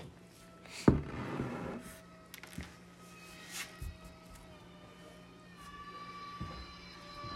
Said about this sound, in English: that meowing? No. it's a remote control Superman.